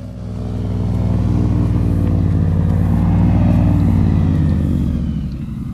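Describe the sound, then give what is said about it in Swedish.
An airboat's propeller engine roars steadily, a loud, deep droning rumble with rich low harmonics that holds for several seconds before easing off slightly at the end. “Så här låter en airboat.”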